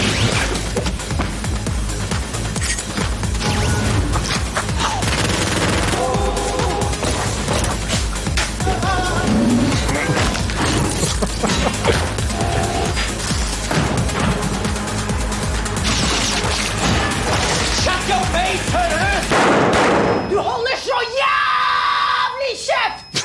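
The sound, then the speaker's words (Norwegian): Loud, dense audio from a TV series trailer with repeated sharp bursts of gunfire, screaming and shouting voices over a continuous driving soundtrack, ending in a brief sudden drop and a final swell. “Mye skyting, eller? Ja, det er, det er, en del skyting.”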